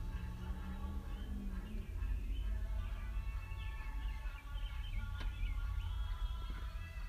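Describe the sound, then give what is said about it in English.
Birds chirp and twitter continuously outdoors, their light calls layered over a steady low rumble of wind or traffic. “And the birds are chirping right now, you know what I'm saying?”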